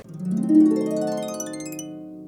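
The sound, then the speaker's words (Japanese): A single low note on a large baritone saxophone weighing about 6 kg, worn with a harness strap, held for about two seconds: reedy and buzzy, played loud, swelling early then slowly tapering off, with no one talking. “楽器ですでもうこんな救命胴衣みたいなあのストラップまでつけてかなり大きい楽器なんですけれども、えー、こちらですねこのかなり大きいんですけどもこれバリトンサックスです。”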